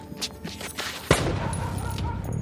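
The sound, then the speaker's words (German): A single sharp gunshot cracks out about a second in, loud, followed by a lingering rumble over a dim, noisy night-time background; another shot fired in the night at a street corner. “Wenige Augenblicke danach peitschte ein weiterer Schuss durch die Nacht.”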